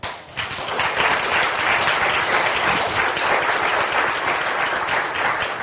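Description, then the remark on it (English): An audience breaks into sustained applause for a panel, a dense, steady wash of clapping that starts abruptly and continues at an even level without any voices. “So, um, congratulations to you for sitting there, and please thank our panel.”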